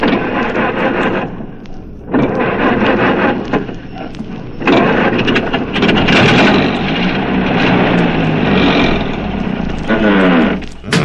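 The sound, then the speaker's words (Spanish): A car engine cranks over and over without catching, loud, in a few long grinding bursts separated by short pauses. “mira, parece que no quiere prender este chunche. Eh, jodido, te das cuenta, no quiere prender.”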